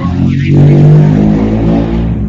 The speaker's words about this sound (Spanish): Pasó un auto por ahí.